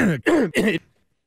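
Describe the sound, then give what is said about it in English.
A man clears his throat from a tickle in the back of it, three quick, raspy bursts in a row that stop abruptly, followed by silence. “you can just tell it's a tickle in the back of his throat.”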